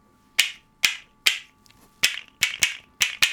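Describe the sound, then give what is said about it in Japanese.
Unpainted wild cherry wood castanets click sharply, about eight crisp strikes: a few evenly spaced at first, then quicker doubled clicks, with no voices. “カスタネットですね、いいですねではあの復活したカスタネット”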